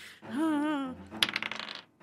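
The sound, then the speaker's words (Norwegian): A die drops onto a table and rattles through a quick series of tumbling clicks before settling, fairly loud, just after a brief hummed vocal sound. It is rolled for a stealth check and lands on 16. “Ok, Gjør en ny stealth check for å beve, på å bevege deg stille. Ja, er dette riktig terning?”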